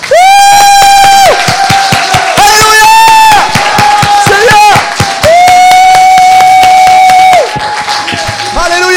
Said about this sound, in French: J'aimerais qu'on termine ce message en donnant le plus grand applaudissement à notre Seigneur que vous avez jamais donné de votre vie. Vous êtes prêts Un, deux, trois.